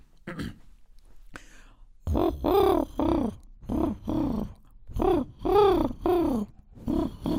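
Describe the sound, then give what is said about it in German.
A person imitates a pigeon's cooing with a series of low, throaty, rhythmic coos, about eight pulsing calls, fairly loud, after a brief quiet start with a few clicks. “Ähm, mein, übrigens, mein Taubengame ist sehr gut. Also Tauben äh, du wüsstest nicht, ob ich eine Taube bin ja, oder mal. nicht.”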